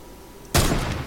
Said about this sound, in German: Die unten sollen irgendwo äh, schüsse sind hier unten.